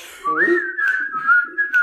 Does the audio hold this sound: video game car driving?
no